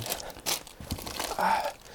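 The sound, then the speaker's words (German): Paper crumples and rustles as a first load of paper is dropped into a bin, a series of crinkling, tearing bursts over two seconds, moderately loud. “So, das war die erste Fuhre Papier, jetzt kommt die zweite.”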